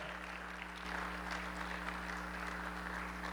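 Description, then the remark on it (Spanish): An audience at a night church service celebrating the birth of Jesus claps steadily in sustained, dense applause, with a low hum underneath and no voices rising above the crowd noise. “Alguien tiene que aplaudir a nuestro Señor, alguien tiene que hacer ruido esta noche.”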